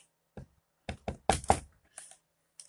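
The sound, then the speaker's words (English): Several sharp knocks on a wooden surface, about six or seven raps in an uneven rhythm, with a quick double knock in the middle and no talking. “I mean, knock on, let me knock on wood quick.”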